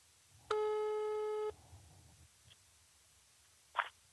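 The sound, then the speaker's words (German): A single steady telephone ringing tone lasting about a second, a buzzy harmonic-rich burr, followed by quiet line hiss and a brief click near the end. “Es läutet.”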